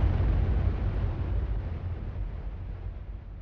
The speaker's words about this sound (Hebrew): אולם משהו נתקע. 18 שניות נוספות חולפות ופיצוץ נשמע במקום.